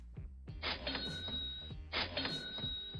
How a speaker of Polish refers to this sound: Kasy fiskalne? Kasy fiskalne.